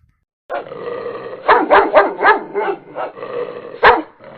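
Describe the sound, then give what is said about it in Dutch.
A dog barks loud in a quick run of several sharp barks, with a whiny, yipping edge between them, then one last bark after a short pause, during a quiet Sunday morning walk by the Zandvoort circuit. No one speaks. “Wacht even, eh, ik moet even een hond bijroepen.”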